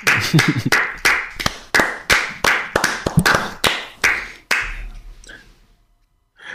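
A brief round of applause: about a dozen sharp, crisp hand claps in a quick, even rhythm, fairly loud, then trailing off into quiet, with no talking over it.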